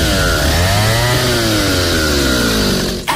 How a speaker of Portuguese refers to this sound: O motosserra mais completo da Steel te proporciona leveza, potência e agilidade para o seu trabalho